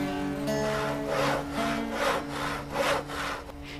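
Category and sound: tool, sawing wood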